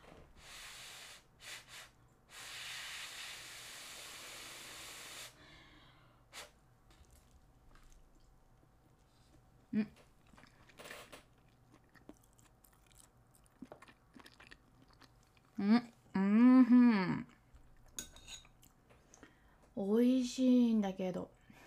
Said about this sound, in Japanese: えっとね明太子明太子とイカの塩辛みたいなやつうんじゃあちょっとあのモッパンみたいになるけど ASMR になるけど、まあ、くちゃくちゃ気にしないでその美味しい音だと思って聞いてて